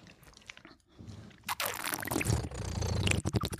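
A brief clink, then a steady rush of liquid being poured into a cup or glass for a couple of seconds, ending with a few small taps. No one speaks.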